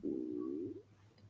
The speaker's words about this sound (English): that was my stomach. I'm gonna leave it in. I hope they didn't hear that.